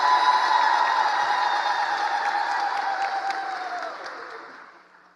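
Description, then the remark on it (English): An audience applauds Jesus steadily with a dense wash of clapping, mixed with sustained high-pitched ululating cries (halal), all fading out gradually over about five seconds. “Can we give him another hand and some halal?”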